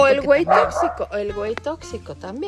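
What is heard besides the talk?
dog barking nearby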